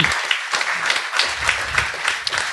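Audience applause, a dense, steady patter of many hands clapping at a fairly loud, even level throughout, with no voices standing out.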